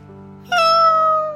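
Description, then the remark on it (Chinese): A cat gives one long, loud meow that starts abruptly and slides slowly downward in pitch, with a faint steady low hum underneath throughout. “到了藏书室，还在门口，他就同已经聚在那儿的猫打招呼。”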